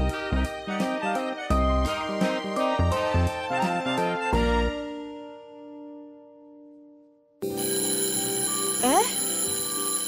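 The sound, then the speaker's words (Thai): A school bell rings loudly in a fast, steady series of metallic strikes for about four seconds, its tone lingering and fading before voices and other sound abruptly start up. “ียงออดดังแล้ว อุ้ย ต้องไปเข้าเรียนแล้วล่ะค่ะ”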